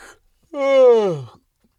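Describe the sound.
A single drawn-out yawn from one person, voiced and sliding downward in pitch, lasting nearly a second after a brief breath, fairly loud with quiet before and after.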